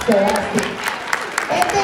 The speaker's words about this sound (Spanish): gracias, un aplauso